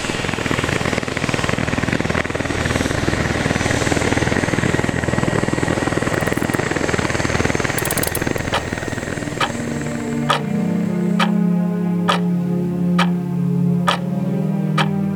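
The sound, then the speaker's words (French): A helicopter based north of Lausanne lifting off: loud, dense rotor roar fills the first ten seconds, then the noise thins out and a steady low drone remains with sharp regular ticks about once per second. “Et l'hélicoptère qui s'envole”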